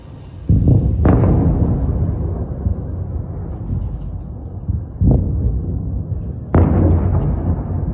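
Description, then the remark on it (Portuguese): Several heavy explosions boom one after another in Ukraine around 5 a.m. on 24 February 2022, at the start of the Russian invasion, each a sharp blast followed by a long rumbling roar that lingers and rolls away, with no voices. “Tetiana Nazaruk diz que acordou ao som das explosões por volta das 5 da manhã.”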